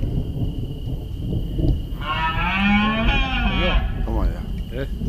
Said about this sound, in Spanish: Retumban los truenos arriba en el cielo y retumban los bramidos de los ciervos en plena berrea abajo en la tierra. Esto es Monfragüe.